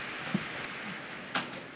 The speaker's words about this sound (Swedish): Alltså jag hörs ju faktiskt. Jag hörs mindre när jag lägger fast dörren.